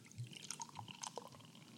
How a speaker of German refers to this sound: Mm, gieß mir mal einen Schluck ein, bitte.